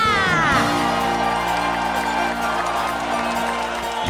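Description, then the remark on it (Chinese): A crowd at the Hermes Sports Center cheers loudly for about four seconds before a running race, a steady roar of voices with rising whoops and shouts bursting out at the start, and no individual speech stands out. “请大家热烈的欢呼吧！”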